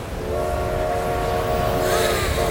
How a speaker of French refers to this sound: Chers voyageurs, le Transmerveilleux Express à destination du Grand Nord partira voie C. Au moment où le train fait son entrée sur le quai, tous les voyageurs s'émerveillent.